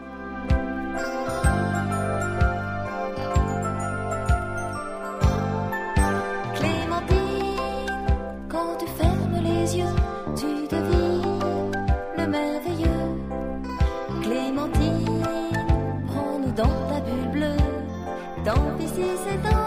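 An upbeat cartoon theme song plays on its own, with bright melodic instruments over a steady, punchy bass beat, full and loud throughout.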